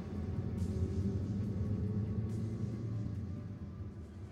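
A low, soft rumble of distant thunder from a storm threatening outside rolls steadily for a few seconds, deep and muffled, with no voices and only faint hints of higher sound above it.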